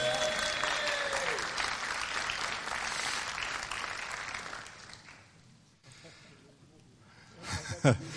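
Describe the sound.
An audience claps steadily for several seconds, a dense wash of applause that gradually thins and fades out, with a few voices and a brief louder sound near the end.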